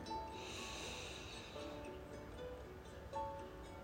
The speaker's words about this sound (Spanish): ¿Cómo sientes tu cuerpo? Vamos por otra respiración. Inhala.